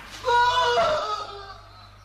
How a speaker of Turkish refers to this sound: Herhalde atılan bombalardan yaralanmış biri. Sen nasıl bu şekilde bağırabilir?